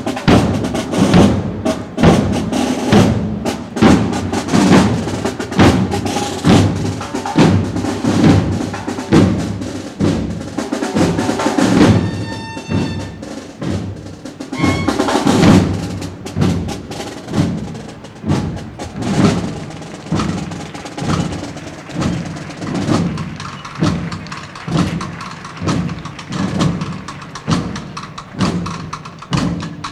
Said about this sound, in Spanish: Pasando justo esta banda.